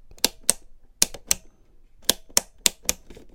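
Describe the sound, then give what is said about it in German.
Wall switches for power sockets, one switch per floor, flipped on and off: eight crisp, sharp clicks in loose pairs, with brief pauses between groups and near silence around them. No one speaks. “Was sind das? Das sind Schalter.”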